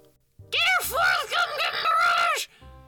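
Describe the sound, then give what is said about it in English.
A voice mimics a shrill, piercing screech, held for about two seconds, its pitch swooping up and down in several wavering arcs before cutting off abruptly. “This guy literally made me drop my phone because, no joke, he screeched.”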